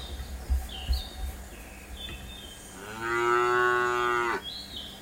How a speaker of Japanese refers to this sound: 来ていただいた方はこうやって牛のね、鳴き声で出迎えさせていただいてるんですが